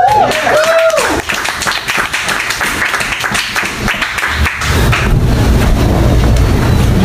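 A comedy storytelling show audience bursts into dense, steady applause for a comedian with a brief high whoop at the start, then the clapping thins out into a low, rumbling murmur of audience noise.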